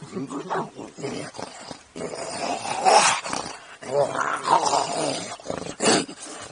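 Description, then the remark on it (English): A man's voice imitates a wolf, as done for Jack Nicholson turning into a wolf in the film Wolf, producing several rough, guttural growls and snarls, rising and falling in bursts over a few seconds. “And um, when Jack Nicholson turns into a wolf, and wolf, uh-huh. that's me.”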